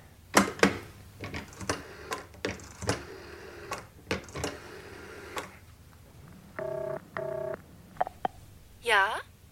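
A telephone being dialed: a run of sharp clicks and clacks gives way to two steady electronic dial tones and a couple of short beeps, then a warbling, rising electronic trill at the end, all fairly loud with no talking.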